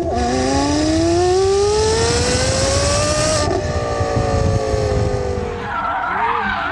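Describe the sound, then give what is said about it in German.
A high-revving ten-cylinder sports car engine climbs steadily in pitch, then shifts and drops back, loud, with a rasping snarl and some tire noise near the end. “Das ist das Zehnzylinder-Ding, deswegen klingt er wie ein Ferrari.”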